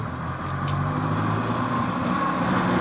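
A steady rumble of a car engine outside with a low droning hum and broad road noise holding at an even level throughout, no voices.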